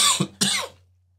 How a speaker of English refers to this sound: excuse me, coughing here, as you can hear.